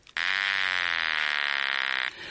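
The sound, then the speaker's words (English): A loud, steady electronic larynx buzz starts abruptly and holds for about two seconds, a harsh droning tone rich in harmonics, then cuts off. No speech accompanies it. “Now, I've got an electronic version of a buzz here, so this buzz you're about to hear is an electronic larynx.”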